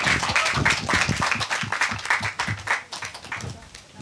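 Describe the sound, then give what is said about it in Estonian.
An audience applauds to send the second team back, with dense, steady clapping that gradually thins out toward the end, with some voices mixed in beneath the claps. “aeg sai siinkohal otsa, nii et saadame siis aplausiga tagasi meie teise tiimi.”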